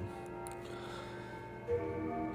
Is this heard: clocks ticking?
yes